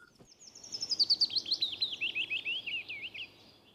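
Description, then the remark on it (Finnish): A willow warbler sings one clear, sweet phrase of soft whistled notes that cascade steadily downward over about three seconds, with faint low background hum and no voices. “Ja sitä paitsi mulle lapsena jo opetettiin, että Peipponen laulaa duurissa ja pajulintu mollissa, mutta ei se tämän mukaan se nyt ei ihan molliakaan ole.”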